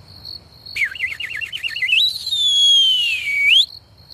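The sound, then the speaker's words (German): A soft robbers' whistle signal given by three robbers at an upstairs window: a quick warbling trill that swoops up into a long, slowly falling note and ends with a short upward flick, heard alone over a faint, steady high-pitched hum. “Die drei Räuber haben oben am Fenster plötzlich einen leislichen Pfiff von sich gegeben.”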